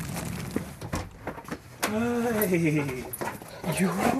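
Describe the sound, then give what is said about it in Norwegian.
A large brown flat-coated retriever at a villa on Bygdøy whines and howls excitedly as a dog walker's van arrives, with long rising and falling high-pitched cries and shorter whimpers, over a low background rumble. “Han hører bilen langt oppi veien her og begynner å bare piper og hyler sånn som han var da han rører på.”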